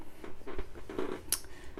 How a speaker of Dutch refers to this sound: Sorry trouwens als mijn stoel heel erg kraakt. Ik zit een beetje in een onhandige houding.